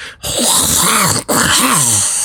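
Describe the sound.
A voice imitates a monstrous rumbling screech, two loud, raspy drawn-out bursts with a brief breath gap between them, the pitch swooping up and down in a throaty growl.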